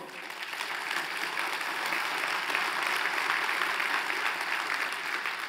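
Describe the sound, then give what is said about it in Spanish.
A church audience claps steadily and densely for several seconds at even loudness without breaks, giving loud applause to the Lord. “Se lo damos fuerte al Señor.”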